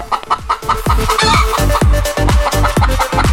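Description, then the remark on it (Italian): A chicken squawks and clucks in a rapid, agitated series of loud calls with no pause, nearly a dozen sharp bursts in just over three seconds; no one speaks. “Bene, ehm, saluterei la gallina sculacciata che è già sul cubo,”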